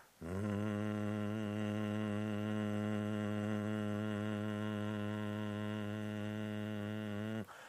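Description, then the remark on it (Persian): A single sustained, very low hummed "mmm" tone held steadily for about seven seconds, loud, with a slight wavering in pitch and no words spoken; a vocal exercise of saying the letter M in a very deep voice to improve a hoarse voice. “تمرین بعدی که میتونم بهتون بگم که برای اینکه صدامون رو بهتر کنیم از اون حالت گرفتگی در بیاد گفتن حرف میمه با صدای خیلی بم که به حالت خیلی بم بگیم”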